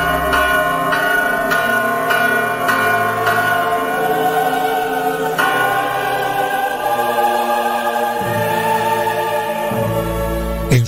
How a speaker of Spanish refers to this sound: Doblaron las campanas en su nombre y toda la ciudad le dio el último adiós en forma multitudinaria.